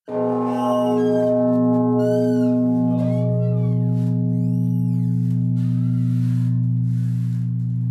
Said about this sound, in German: Dieser Anschlag war jetzt von der Probstglocke, der größten Glocke hier mit 140 Zentner, die zweitgrößte der Erzdiözese München und Freising.